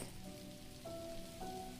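Light drizzle patters softly and steadily in the afternoon, a quiet continuous hiss of fine raindrops, with a couple of faint sustained tones rising briefly in the background.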